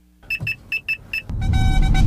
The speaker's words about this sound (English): What I was recording was the advanced warning system that you're getting in the wrong lane with that dash cam